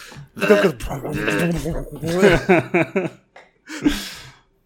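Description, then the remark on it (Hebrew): A voice mimics a SodaStream carbonating water in a bottle: strained, buzzing vocal gurgles, a quick run of rhythmic pulsing bursts, then a short breathy hiss after a pause, fairly loud. “ואני כזה מוציא את הבקבוק שם אותו בסודה סטרים מתחיל על זה”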